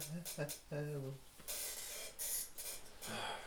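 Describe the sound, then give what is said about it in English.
A chair making noise: a few short tonal squeaks, then longer airy hissing bursts like a seat shifting or its gas lift releasing, with brief pauses between. “You can hear that fucking chair, man.”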